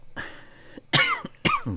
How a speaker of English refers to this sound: if this cough goes away, it's tickly cough.